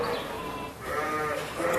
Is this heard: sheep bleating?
yes